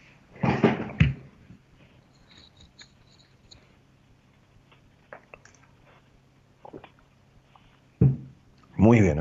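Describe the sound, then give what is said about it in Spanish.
Someone takes small sips of water, with soft wet mouth and swallowing sounds, bracketed by brief bursts of voice at the start and end. “Espera un segundito, porque he hablado tanto en la apertura, voy a tomar un poquitito de agua, ¿sí?”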